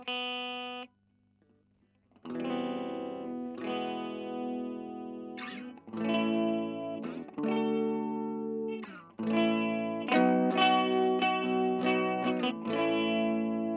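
Electric guitar chords ring out with a shimmering chorus-like wavering, as the high E string, slipped out of tune to sound the same note as the string beside it, beats against that string; a short note opens, a pause follows, then sustained strummed chords build with no talking.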